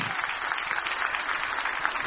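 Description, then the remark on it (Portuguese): A crowd applauds the singers after a song, clapping steadily for a couple of seconds, a dense, continuous patter of many hands with no voices rising above it. “Uma salva de palmas para vocês.”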